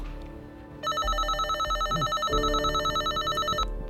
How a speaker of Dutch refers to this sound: We bellen meerdere keren aan, maar niemand doet open.